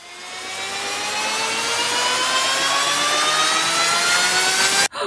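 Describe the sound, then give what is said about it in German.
A time machine travel effect: a rising, whooshing sci-fi warp with harmonic tones sweeping steadily upward over a roaring engine-like rush, swelling loud for several seconds before cutting off abruptly near the end. “So, Zeitmaschine.”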